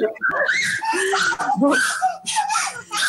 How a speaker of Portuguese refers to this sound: está bem animada aqui do meu lado, acho que vocês estão ouvindo o gritinho.